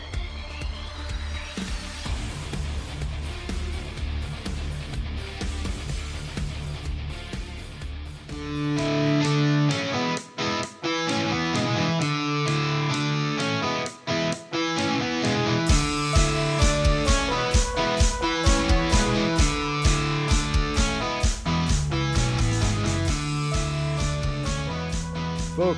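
A blues rock song driven by loud, distorted electric guitar, opening with a sustained wash before drums kick in with a steady, pounding beat. No voices speak over it.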